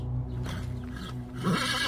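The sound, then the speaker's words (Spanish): Horses at a river bank neigh nervously as they refuse to drink or approach the water, a short wavering whinny rising near the end over a steady low background rumble, with no talking. “Cuando estaban a punto de beber los animales, desistieron de ello, y tanto nerviosos se empezaron a relinchar sin querer arrimarse a la orilla del río.”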